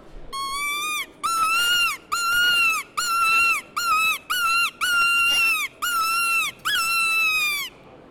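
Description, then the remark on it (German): A high-pitched, wailing predator call used to lure foxes, imitating a dying animal: about nine loud, drawn-out squealing notes with bright harmonics, repeated in an uneven rhythm with brief gaps and no talking. “Wichtig ist, wenn man klagelocker spielt, dann simuliert man ein sterbendes Tier.”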